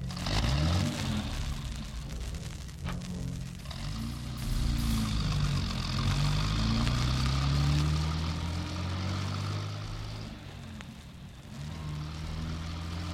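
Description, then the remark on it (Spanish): A car engine hums steadily as a man drives his car several times around the streets, its low tone rising and falling with shifts in speed, loud with road noise and no voices. “Eugenio Yáñez salió a la calle y dio varias vueltas en su coche.”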